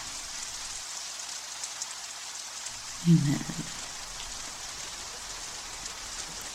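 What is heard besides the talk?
rain falling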